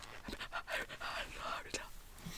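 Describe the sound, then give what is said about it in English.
Soft, breathy whispering and faint mouth movements come in quick rhythmic bursts as a man silently mouths words and counts syllables under his breath while composing a haiku, quiet. “he mouths what he's saying, so you can just hear his mouth moving and him counting.”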